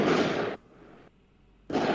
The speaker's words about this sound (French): Il y a des pétards maintenant, là.